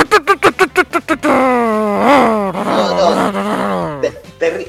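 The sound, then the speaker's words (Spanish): A voice imitates the loud noise of a low car revving as it arrives: a quick burst of stuttering pulses, then a sustained, rising and falling growl, as if the engine is gunned hard. “Eh, eh, gente que eh, hace eso, mucho ruido con el auto cuando llega, olor a Axe, mucho olor a Axe.”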